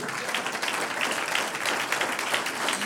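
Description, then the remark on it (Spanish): An audience applauds the Lord steadily, many hands clapping in a dense, continuous patter that holds at an even loudness for the whole stretch, with no voices rising above it. “Un aplauso al Señor.”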